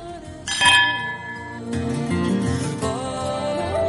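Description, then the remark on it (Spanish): A single bright clink of wine glasses in a toast with Marqués de Bizoja wine rings out and shimmers for about a second, then gives way to steady background music with no talking. “Nuestro brindis con Marqués de Bizoja.”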